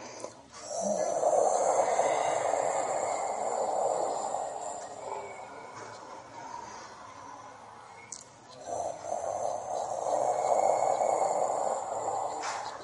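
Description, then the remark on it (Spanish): During an abdominal self-massage exercise, a voice imitates a tiger's roar with a long, breathy, growling exhale held for several seconds, then a brief pause and a second sustained roar, fairly loud. “Y como el rugido de un tigre,”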